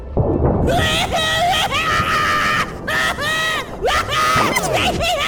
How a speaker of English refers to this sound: That is some scream. And was that a horn section? Incredible. They lose control of their butt when they scream. It's really something.